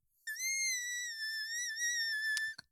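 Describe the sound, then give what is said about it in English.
A single high-pitched whistle-register vocal squeal holds steady for over two seconds with a slight waver, loud, then cuts off abruptly with a couple of quick clicks. “I've got a whistle tone.”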